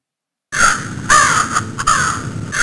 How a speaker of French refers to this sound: Un corbeau.